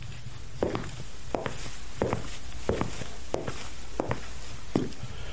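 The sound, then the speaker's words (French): Foley footsteps in men's shoes, a steady series of about eight firm heel-toe steps at an even walking pace, clear over a quiet background hum. “selon les chaussures que l'on met, eh bien, on a un, son euh, plus ou moins aigu, euh, si on veut des chaussures d'homme ou de femme, voilà, par exemple j'ai des chaussures d'homme, voilà ce que ça peut faire.”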